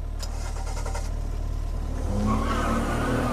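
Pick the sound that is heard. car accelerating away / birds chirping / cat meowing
car accelerating away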